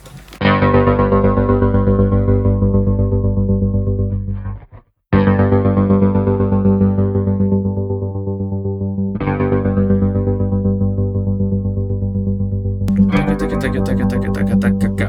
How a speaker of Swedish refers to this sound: det Johan gör nu är att han programmerar rytmen på tremolot